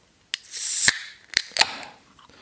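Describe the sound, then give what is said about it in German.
A can of Sudden Death beer, brewed at Frau Gruber's brewery in Bavaria, is cracked open: a sharp click, then a bright fizzing hiss for about half a second ending in a snap, followed by two more short metallic clicks. No talking. “So, it's Dosen Time, meine lieben Freunde.”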